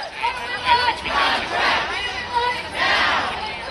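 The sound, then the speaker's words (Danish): Several hundred striking writers on a picket, walking in a circle in front of the Motion Picture Association building, chant together shouting for fair rights in loud, rhythmic bursts, many voices rising and falling in repeated waves, energetic with no other sounds standing out. “Jamen, de foregår ved, at forfattere samles hver dag faktisk, flere hundrede, og så går de i sådan en cirkel foran øh, den bygning, hvor Motion Picture Association holder til, og så råber det, vi want fair rights.”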